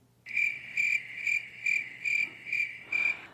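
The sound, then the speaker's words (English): A cricket sound effect played from a soundboard app: crickets chirp in a steady, evenly spaced rhythm, seven bright pulses over a few seconds, clear with a faint hum beneath and no voices. “there's a bunch of different sound effects that you can use”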